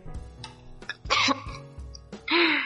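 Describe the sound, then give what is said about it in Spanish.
Two sharp, explosive sneezes burst out, separated by a short pause, with a few soft breaths and throat sounds leading up to them. “Perdón. Salud.”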